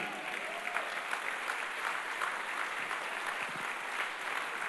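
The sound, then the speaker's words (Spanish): A church audience bursts into steady, sustained applause given to God, a dense crackle of many hands clapping at an even loudness throughout, with a faint murmur of voices underneath. “De un aplauso a Él.”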